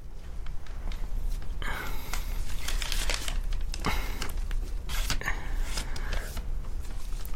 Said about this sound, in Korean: 종이를 쳐보며 안정을 되찾으려고 노력했다.